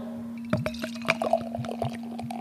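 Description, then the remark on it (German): Beer foaming and fizzing just after a bottle of Kellerpils from Canü Braumanufaktur in Unna, North Rhine-Westphalia, Germany, with 5.1% alcohol by volume, is opened, with a cluster of crackling, bubbly pops and trickles over a steady low hum, no voices. “Und das werden wir uns jetzt gönnen. Mach auf. Ja. Oh, es schäumt.”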